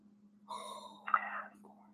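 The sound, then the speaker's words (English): A deep, audible gasping breath drawn in, followed by a breathy exhale, lasting about a second over a faint steady hum. “Uh, I'm, I'm, I'm breathing deeply here.”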